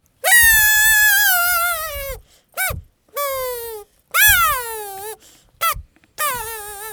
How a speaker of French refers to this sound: Mettez le second bâtonnet par-dessus, comme un sandwich. Enroulez un élastique à chaque bout. Vous avez un casou. Génial Je peux essayer Oui, allez-y, soufflez dedans.